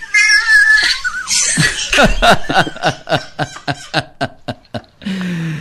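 A cat meows in a high, drawn-out wavering cry, followed by a long burst of rhythmic, pulsing laughter that gradually tapers off, with a brief voice at the very end.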